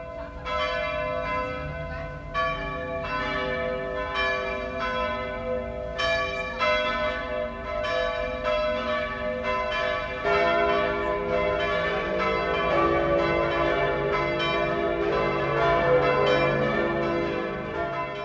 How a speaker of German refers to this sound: Es ist 12 Uhr. Das Mittagsläuten kommt heute aus Ingolstadt in Oberbayern.